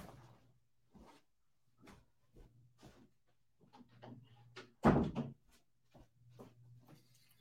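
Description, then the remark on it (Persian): A door is shut with a single solid thud, preceded and followed by soft shuffling and handling noises from someone moving, against a faint low hum. “یه لحظه من این در رو ببندم سر صدا هستم”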